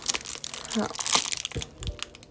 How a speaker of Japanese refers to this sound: はいはい入りましたニンニクチューブ